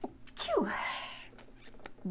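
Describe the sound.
A single loud sneeze: a sharp inhaled catch that bursts into a breathy, hissing expulsion, followed by a short pause and a faint voiced sound at the end.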